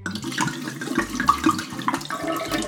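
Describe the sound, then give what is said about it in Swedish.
Confiscated smuggled liquor splashing and gurgling as Swedish Customs pour it down a drain, a continuous rush of liquid lasting a few seconds, with a low stepped bass line underneath. “Och hej, varför hälla prima etanol i avloppet?”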